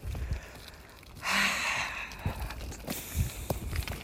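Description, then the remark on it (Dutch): Footsteps of a person walking thud softly at a steady pace, with a long audible breath in through the nose partway and faint outdoor background noise throughout. “Tijdens het wandelen, net als dat ik nu doe, adem je in door je neus.”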